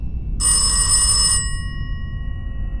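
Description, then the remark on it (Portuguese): A telephone bell rings once in a single bright, jangling burst lasting about a second, with a faint tone lingering afterward over a low background rumble. No one speaks. “Começou a arrumar a sala quando o telefone toca novamente.”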